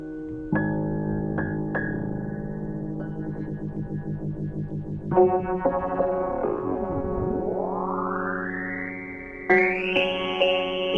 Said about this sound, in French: Voilà, ça c'est le son du piano qui est tordu par son plugin.